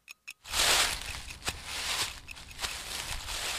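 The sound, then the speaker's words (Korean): Steady footsteps crunch and rustle through dry leaves, a continuous brittle crackling with a few sharper steps standing out, preceded by two brief taps; no voices. “시몬, 너는 좋으냐? 이것 밟는 발자국 소리가.”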